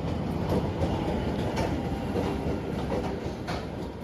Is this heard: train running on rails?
yes